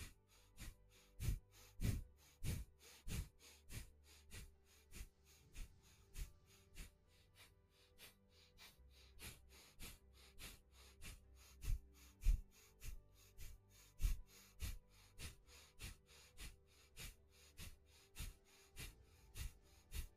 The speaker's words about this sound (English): Okay, we're gonna go another time, another round for the exercise for the breathing.